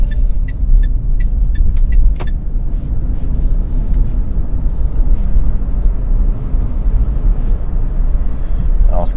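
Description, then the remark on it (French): Steady low rumble of an electric car cruising along a road, with road and tire noise filling the interior and a few faint ticking chimes early on. “Petite balade en voiture électrique”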